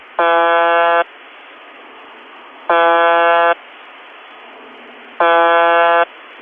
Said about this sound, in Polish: Jej potoczne nazwy to po angielsku baser, po rosyjsku żużałka, a po polsku brzęczyk. Zwykle nadaje ona krótki, monotonny sygnał brzęczenia, powtarzany w przybliżeniu 25 razy na minutę przez 24 godziny na dobę.